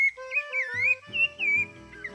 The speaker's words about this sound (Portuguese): Em tupi, sabiá significa aquele que reza muito, em alusão à voz desta ave.